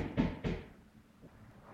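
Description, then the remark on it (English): A neighbor knocks twice on a wall: two dull, heavy knocks about a third of a second apart, each with a short muffled boom that fades into a quiet hum. “My neighbor's knocking on the wall.”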